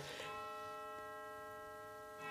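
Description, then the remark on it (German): A clock ticks slowly, roughly once a second, a few soft, sharp clicks over a steady, faint electrical hum, with no voices. “Das ist die Uhr des. des äh, ja.”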